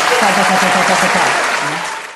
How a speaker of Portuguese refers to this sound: Eu vou pôr efeito agora. Palmas! Vai ter palmas aqui, gente.